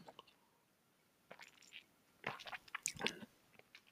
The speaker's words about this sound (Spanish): Mm, eh, voy a beber un poquito de agua.